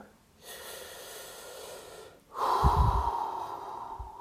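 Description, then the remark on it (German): A person takes deep, audible breaths: a long exhale followed by a fuller, louder inhale with a slightly rasping, snorting edge. Clear, with no talking. “Tief aus- und einschnaufen.”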